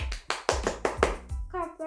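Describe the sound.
A brief round of applause: about eight quick, sharp hand claps in a steady rhythm, followed by a high voice calling out at the end.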